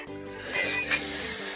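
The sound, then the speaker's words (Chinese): A character in a children's story, who has just woken the Lion King, gasps in shock: a sharp, hissing intake of breath that swells in two quick surges and is then held as a long, airy rasp. No words are spoken. “刚刚叫醒狮子王的那个人倒吸了一口冷气。”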